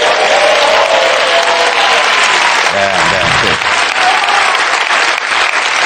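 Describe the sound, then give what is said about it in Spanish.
Sustained audience applause, a dense, steady wash of clapping at full volume throughout, with a brief voice rising above it around the middle. The audience is applauding a news headline that the Supreme Court confirms the Christmas hamper is a workers' right. “A partir de este aplauso, dos, dos, eh, conclusiones.”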